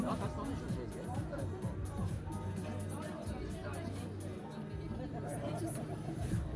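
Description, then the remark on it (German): A large outdoor crowd of spectators at a race start, where female competitors roll off a start ramp at one-minute intervals, murmurs and chatters in a dense, continuous hubbub shortly before the 10 a.m. start, many overlapping voices blending at a moderately loud level that slowly grows louder, with no single speaker standing out. “Tja, und die, die Kulisse wird auch langsam immer lauter.”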